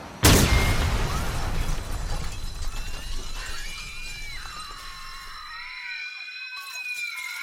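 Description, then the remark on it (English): A sudden loud blast as an explosion destroys a cafe, followed by a long wash of crashing debris and shattering glass that slowly fades, with high whining tones and cries emerging as the rumble settles. “He pours the spirit into his coffee and is about to take a sip when an explosion destroys the cafe he was just in.”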